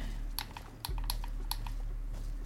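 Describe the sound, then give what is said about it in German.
Several computer keyboard keys are pressed in an irregular sequence of sharp clicks over a steady low hum, with no one speaking. “Ach, ich will immer auf meine Tastatur drücken. Die liegt halt auch noch vor mir.”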